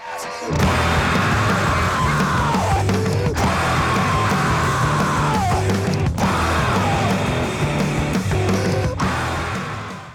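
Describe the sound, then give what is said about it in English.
A rock vocalist screams and yells almost nonstop over a loud, dense band, with raw, strained cries rising and falling in short bursts, at full volume. “about 30 seconds of it is uh, we've got … screaming away”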